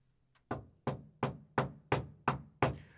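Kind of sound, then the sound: sound effect, knocking on a door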